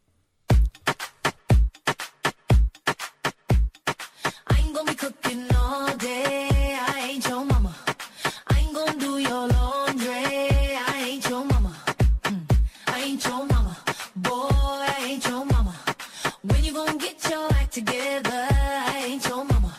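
An upbeat pop song plays loudly, with punchy, regular drum hits driving a steady beat and layered melodic synths and vocals sustaining over the top throughout.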